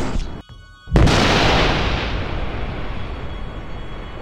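A single loud explosion hits suddenly after a brief whooshing lead-in as a shrieking bolt of light explodes into a creature's side, then trails off into a long, rumbling roar that slowly fades. No voices are present.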